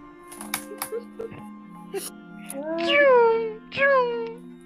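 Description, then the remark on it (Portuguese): Two drawn-out cat meows from cats on a roof sound one after the other, fairly loud, following a few scattered knocks and clatters, with a steady low hum droning underneath throughout. “esses gatos aí em cima do telhado?”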